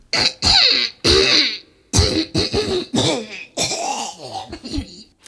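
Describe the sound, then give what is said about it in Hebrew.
A series of forceful throat clearings from a woman before she begins to speak, three or four harsh bursts with short gaps between them, followed by a run of rougher, voiced throat noises. “הגברת הנכבדת כחכחה בגרונה כחכוח וכחכוחיים, והחלה לדבר בקצב מדוד.”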